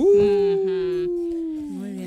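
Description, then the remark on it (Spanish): A wolf howls in one long, steady note that slowly sinks in pitch, while a second, lower howl overlaps it. Both are loud, with no talking. “Porque las antiguas comunidades asociaban el fenómeno a que durante el mes de enero los lobos aullaban más.”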